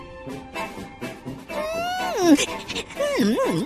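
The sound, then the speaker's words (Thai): Quick, rhythmic sniffing and panting bursts, followed by whiny, pitch-sliding vocal sounds, apparently a voice imitating a pack of palace dogs excitedly catching the smell of rain-soaked leather on a royal chariot's seat, moderately loud. “กลิ่นแบบนี้เป็นของโปรดสำหรับเหล่าสุนัข ซึ่งสุนัขในวังฝูงหนึ่งก็ได้กลิ่น”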